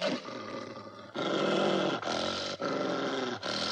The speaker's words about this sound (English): Every time she approached their cages, they snarled at her, snapping their teeth.